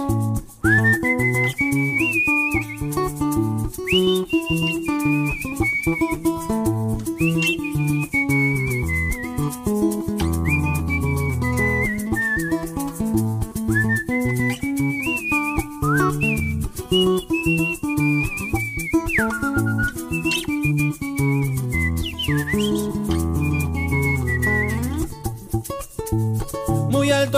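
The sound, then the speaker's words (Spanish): A lively Venezuelan tuyero folk tune plays as an instrumental opening, with a bright, high melody gliding over steady plucked chords and bass, loud and continuous with no singing. “Algo hecho, un, un tuyero escrito por nuestro pana”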